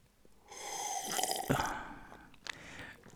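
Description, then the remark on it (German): A wet slurping sip of water lasting a couple of seconds, followed by a soft gulp and a small click of the mouth, with no talking. “Erstmal einen Schluck Wasser zu mir nehmen.”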